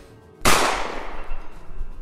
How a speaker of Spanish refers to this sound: Estás tratando de acercarte entre el fuego cruzado, buscaba un espacio de cobertura, pero te llega un disparo.